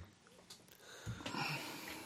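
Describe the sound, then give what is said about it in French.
A man draws a deep breath into the microphone as he settles in, a soft, airy rush that swells over about a second after a quiet start, with no talking. “Voilà, il prend sa respiration, il s'installe.”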